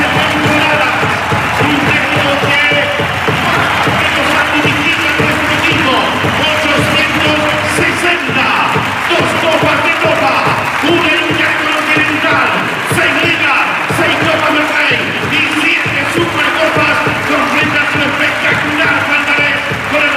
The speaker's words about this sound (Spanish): Bueno, público en pie, jugadores aplaudiendo y Lasso llorando.